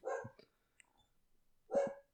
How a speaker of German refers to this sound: Oder ist der Hund im Hintergrund. Jemand kommt nach Hause.